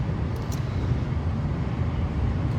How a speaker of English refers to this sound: You want a nice a you want to have a nice Minnesota introverted moment and just listen to the hum of the highway.